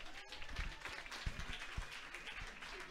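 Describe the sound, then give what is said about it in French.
A crowd applauds steadily, a dense wash of many hands clapping at an even, sustained level, with a few sharper individual claps and thumps standing out. It is the audience at the Jockey, at a sold-out evening show. “Donc une bonne main d'applaudissement à tous ceux qui sont au, euh, au jockey en ce moment.”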